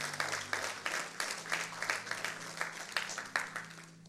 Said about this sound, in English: Sympathy clap.